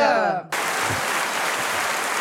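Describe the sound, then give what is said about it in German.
Steady, dense applause from a crowd clapping for the hosts, a broad wash of many hands clapping at once, loud and continuous after a brief tonal sound at the start. “Ach, ja, seht ihr, wird schon, wird schon für uns geklatscht.”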